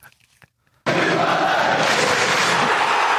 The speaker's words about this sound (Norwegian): Nå er det faktisk uh, debut. Debut på jingle. Oh, Håper dere er klare.